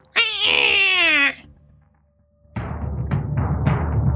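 A single loud, piercing cat scream at night lasting about a second, high and strained with a wavering pitch that slides downward, followed by a brief quiet and then a steady rough, rumbling noise.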